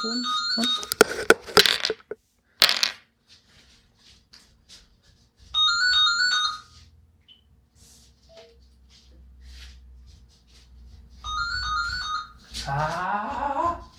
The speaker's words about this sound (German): Ja, ich habe hier eine Editiermarke, kein Problem, wenn du dran gehst. Aber ganz genau, mal kurz ja. Stopp, weil das Telefon.